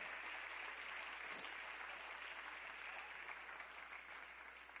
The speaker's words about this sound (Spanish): Dele un aplauso a la gloria del que vive y reina.